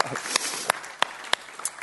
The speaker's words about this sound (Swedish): Halleluja, ge Jesus en applåd